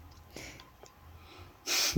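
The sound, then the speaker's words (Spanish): A sharp, abrupt hiccup, followed by a fainter catch and then a loud, breathy rush of air near the end. No talking. “Tengo hipo.”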